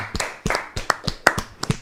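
An audience claps along in a steady rhythm, about six sharp, even beats in under two seconds, moderately loud with no voices over it.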